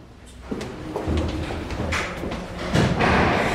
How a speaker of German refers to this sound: Mit dem ersten Tageslicht hört er das inzwischen so vertraute Geräusch des Stahlriegels seiner Tür, wenn sie geöffnet wird. Es geht los.